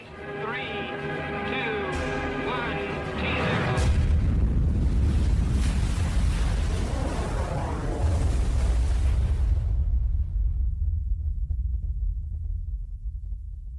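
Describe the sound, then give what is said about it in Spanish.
A thermonuclear hydrogen bomb test explosion, with a yield of about 10 million tons of TNT, erupts after a few seconds of steady tonal sound, unleashing a massive, sustained roar of deep, rumbling noise that rolls on loudly and continuously to the end. “La potencia de la explosión es similar a la de 10 millones de toneladas de TNT.”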